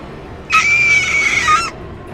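A young girl lets out a single sharp, piercing scream lasting just over a second, loud, with a steady high pitch before it cuts off abruptly into quiet.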